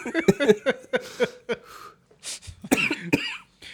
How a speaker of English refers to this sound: God damn it. I choked on a hit of my vape.